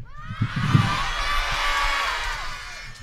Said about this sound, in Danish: Jeg synes simpelthen bare, at vi alle sammen i kor herinde i Tivoli skal råbe, hej Andreas, men det skal vel og værke være så højt, som vi overhovedet kan, er I klar på at råbe, hej Andreas? Så gør vi det på 3, 2, 1.